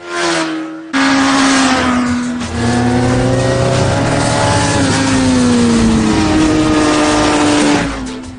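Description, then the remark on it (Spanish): A Suzuki GSX-R sport motorcycle engine roars loud, revving and accelerating in a sustained high-pitched whine whose pitch slides up and down over several seconds, with no voices. “El lugar perfecto para descubrir lo divertido que es conducir una Suzuki GSXR.”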